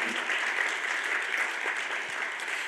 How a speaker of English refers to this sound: So he's going to do a great job. Please give him a big round of applause, okay?